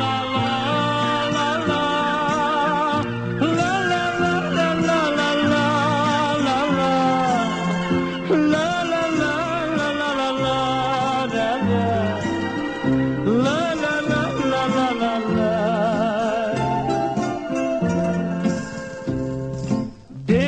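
A recorded song plays steadily and loudly throughout, with full band instrumentation, a strong bass line and a wavering melodic lead carrying over the top, no talking.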